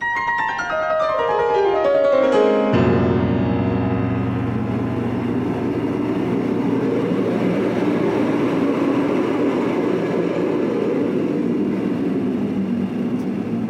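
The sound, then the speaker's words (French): Russolo intonarumori noise machines: a buzzing harmonic tone slides downward in pitch for a few seconds, then gives way to a loud, steady, rumbling roar that churns on without pause and with no voices. “Et ces machines à bruit, ces intona sont clairement les ancêtres des synthétiseurs.”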